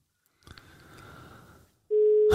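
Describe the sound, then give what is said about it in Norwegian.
A soft rustling, handling noise gives way to a loud, steady telephone ringing tone that starts abruptly near the end and holds as a single pure pitch. “Men jeg, jeg hører at det ringer.”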